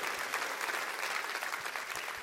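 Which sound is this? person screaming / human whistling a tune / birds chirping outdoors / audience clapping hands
audience clapping hands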